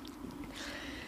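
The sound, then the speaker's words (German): A single sharp, breathy sneeze bursts out midway, fairly loud, with nasal sniffing sounds around it and no talking. “Gesundheit.”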